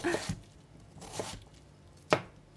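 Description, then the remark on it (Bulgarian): A knife chops peeled potatoes into pieces on a cutting board: three sharp thuds spaced roughly a second apart, with a little soft scraping between strokes and no voices. “Следва да обеля и нарежа на купчета и първия зеленчук.”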